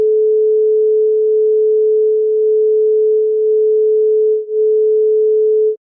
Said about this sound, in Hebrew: ואני אשים פה צליל סינוס של 432, ואתם תגיבו ב, אה, בספוטיפיי, האם הרגשתם פתאום איזו הרגשה הרגשת. קוסמית?